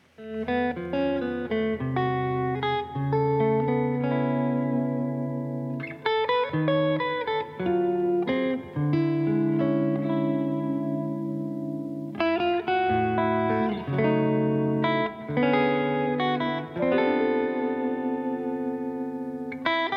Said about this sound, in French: On va écouter euh, quelques secondes là aussi de ce morceau, on en parle juste après.